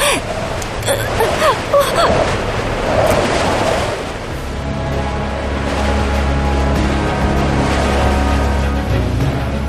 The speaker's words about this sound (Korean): 그 순간 갑자기 거센 바람이 불었다.